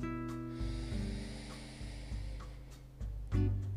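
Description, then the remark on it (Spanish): A slow, deep breath, inhaled gently and deeply, with a soft, airy exhale through the nose during a guided lying-down relaxation, over a steady, low musical drone with no talking. “Inhala suavemente y profundamente.”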